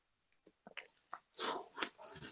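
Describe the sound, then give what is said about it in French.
Wet mouth sounds of someone finishing their ice cream, chewing and sucking on it, a quick irregular series of smacks and slurps growing louder toward the end, with no talking. “Comme ça, il n'y aura plus de bruit de succion et de mâche euh, pendant l'émission.”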